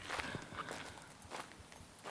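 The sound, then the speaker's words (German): Footsteps of a person who has sneaked onto a construction site, walking at a steady, unhurried pace, each step a soft crunchy tap, fairly quiet against a constant background hiss, with no one talking. “und du gehst immer noch?”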